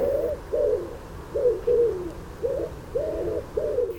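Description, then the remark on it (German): A wood pigeon coos in a steady rhythmic series of soft, low hooting notes, about seven phrases in four seconds, clear with no other voices. “Nach ihnen kam der Frauenchor mit Rosi Rotkehlchen, Rosa Ringeltaube,”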